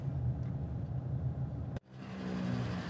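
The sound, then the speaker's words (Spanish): A car engine idles with a steady low rumble while stopped at a traffic light. A sharp break interrupts it briefly near the end before the hum resumes, and no one speaks. “A ver, estoy parado ahora mismo en un semáforo y tengo a mi familia en el coche de al lado.”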